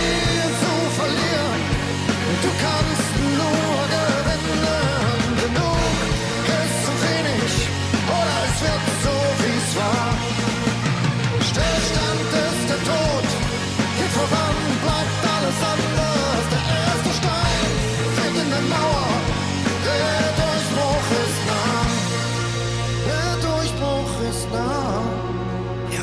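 A loud, dense stretch of rock music with a full band and what sounds like a sung vocal line, playing continuously at steady volume for about half a minute.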